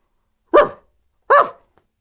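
Two loud, sharp dog barks, spaced apart by a short pause, each a quick harmonic burst with a mid-pitched tone, followed by silence and no talking.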